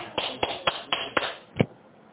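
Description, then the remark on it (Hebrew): Hand clapping: six sharp claps in a steady, even rhythm, the final clap coming after a slightly longer pause and sounding a bit stronger. No voices are heard. “אז אנחנו מוחאים כפיים.”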